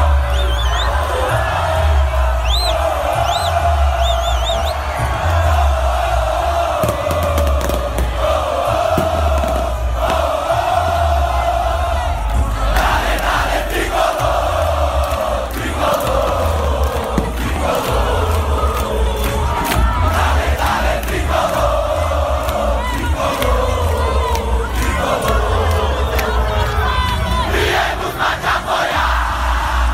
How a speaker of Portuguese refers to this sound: Escuta só aí a torcida do, do Fortaleza, que festa bonita.